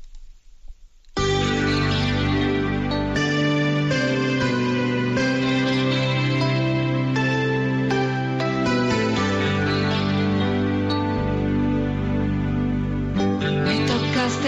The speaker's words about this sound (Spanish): Bueno, tenemos esta, este canto que nos sirva para pedir esta libertad.